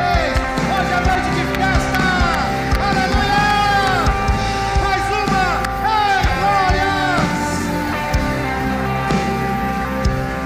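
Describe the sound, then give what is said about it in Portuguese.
A large church audience cheers and applauds loudly and continuously as a young woman returns to the ways of the Lord, many voices shouting and whooping together over a dense wash of crowd noise that fills the whole stretch. “Aplausos.”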